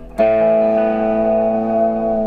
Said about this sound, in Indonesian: cleannya di sini loh langsung kan ini kayak nggak pakai distorsi kan kalau gitar lain ada susah, nggak ada. Ini keistimewaannya gitar ini.